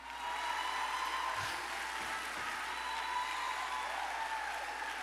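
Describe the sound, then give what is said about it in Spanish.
Steady, dense applause from an audience, a continuous wash of many hands clapping at even loudness for several seconds with no voices standing out. “Dale un aplauso fuerte.”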